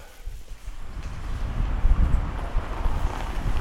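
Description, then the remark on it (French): Steady light wind gusts buffet the microphone outdoors beside the Meuse river after the rain has stopped, a low rumbling roar that swells and eases over a few seconds, with no voices present. “Et moi, je continue à longer la Meuse alors qu'il y a toujours un petit vent là, mais il ne pleut plus.”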